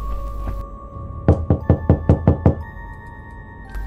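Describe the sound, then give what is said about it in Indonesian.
Seven loud, rapid knocks pound on the door of a house in a quick, steady rhythm, forceful, over a low background hum with steady tones, then stop abruptly; a figure bangs on it with its head in the quiet, dark night. “Sosok itu menggedor menggunakan kepalanya sehingga menimbulkan suara yang keras di tengah malam yang sepi dan gelap.”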